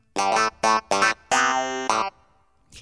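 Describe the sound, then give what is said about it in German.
Funky clavinet keyboard stabs with a wah-wah effect, playing a short syncopated phrase of bright, buzzy plucked notes, including one longer held chord, ending in silence. “jetzt hier mit Wawa-Effekt, ne?”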